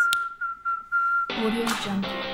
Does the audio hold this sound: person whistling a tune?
yes